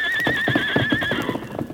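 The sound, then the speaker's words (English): A strong white horse whinnies loudly with a high, wavering neigh while its hooves clip-clop in a steady rhythm beneath it, prominent, with no voices present. “Ah, him plenty strong, plenty good horse. I wonder if he'll take a saddle.”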